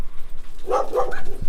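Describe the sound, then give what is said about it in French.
A female dog barks a few times in quick succession, short sharp yips over faint outdoor background noise, with no one speaking. “Et aussi, elle jappe beaucoup, beaucoup”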